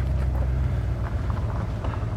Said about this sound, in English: Oops pull off the side of the road. Make way for an Amazon truck.